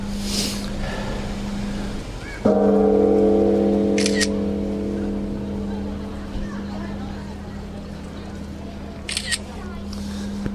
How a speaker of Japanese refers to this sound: えー、っとたくさん並んでますね大変たくさんの方が、えー、除夜の鐘を、えー、つくのに並んでおります